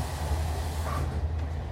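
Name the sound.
train interior rumble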